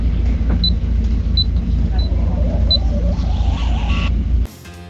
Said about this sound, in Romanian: Casă de marcat. Ah, casă de marcat.